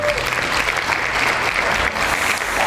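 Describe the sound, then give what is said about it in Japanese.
Steady applause from a group in a studio welcoming a guest, a dense continuous patter of many hands clapping at a fairly loud, even level throughout with no pauses. “このスタジオに現れてくれた、あー堀ローレン香織、えー拍手。”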